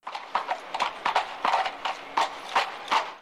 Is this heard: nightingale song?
no